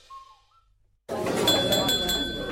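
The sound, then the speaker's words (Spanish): Several bright glass clinks ring out in quick succession as a family makes a toast, over a sudden swell of lively crowd chatter, following a brief faint whistle-like tone in near silence. “Familia, me gustaría hacer un brindis por los que estamos, por los que se han ido y por los que llegarán, porque juntos hemos conseguido superar este año lleno de trabajo, de esfuerzo y de retos,”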